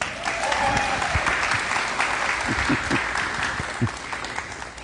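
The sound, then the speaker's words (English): A large Lake Forest Davidson church crowd applauds steadily to welcome Mike Moses, a dense wash of clapping holding throughout with a few scattered louder claps standing out, no speech over it. “Give a warm Lake Forest Davidson welcome to Mike Moses.”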